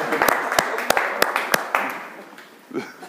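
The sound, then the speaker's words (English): A short burst of applause for a boy who got up: roughly ten sharp, evenly spaced claps over a second and a half, clear, trailing off before a brief voice sound near the end. “All right, let's, let's, let's give my son a round of applause for getting up.”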